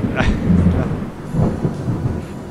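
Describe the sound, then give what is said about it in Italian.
Deep rumbling thunder rolls beneath a steady hiss of rain, with a couple of louder low booms swelling and fading over a few seconds; no voices are heard. “Ah, via, via la pioggia,”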